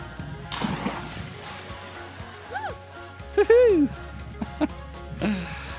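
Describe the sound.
A single sharp splash as a person jumps into water, followed by excited voices and laughter.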